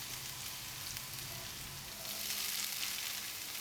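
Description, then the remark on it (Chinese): Minced ginger and diced shiitake mushroom frying in cabbage oil in a pan, giving a steady, bright sizzling hiss that swells slightly louder in the second half, with faint low clatter underneath and no talking. “锅内我们留下一些油，等一下我们要用这个高丽菜油来爆香姜末和香菇丁。”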